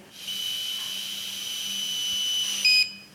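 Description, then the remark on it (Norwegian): A steady electronic tone from an alcohol interlock breathalyzer sounds for about two and a half seconds over a faint breathy hiss as a person blows into it, ending with a brief louder beep before cutting off. “Da skal jeg blåse, og da vil jeg høre en pipelyd.”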